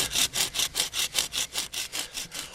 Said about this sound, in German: Ich säge jetzt mal diesen Ast ab.